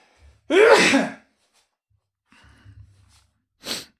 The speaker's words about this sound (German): Ich muss mal kurz niesen. Moment.